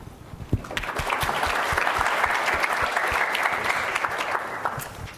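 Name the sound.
audience applause welcoming speakers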